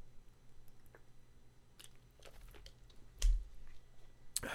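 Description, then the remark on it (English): Quiet, wet mouth sounds of someone sipping and swallowing water, a few soft gulps and clicks, with one firmer swallow near the end and no talking. “that's water. It's just water.”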